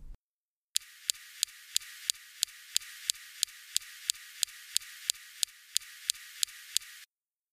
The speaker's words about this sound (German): Ähm, es ist ein Laserstrahl, also ein Laser, der abgefeuert wird